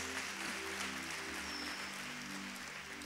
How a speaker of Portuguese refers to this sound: Pode dar uma salva de palmas para Jesus.